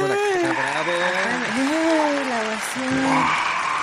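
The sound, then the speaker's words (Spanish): A recorded applause sound effect: loud, continuous crowd applause, a dense wash of clapping with an excited voice shouting and cheering over it. “aplausos grabados,”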